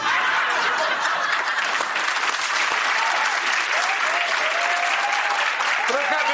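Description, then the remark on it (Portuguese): A crowd applauds steadily and loudly the whole time, a dense wash of clapping with no pauses. Scattered cheers and whoops rise faintly through it toward the end. “Pode preparar mais aplausos, porque no domingo vai estrear a nova temporada do Choque.”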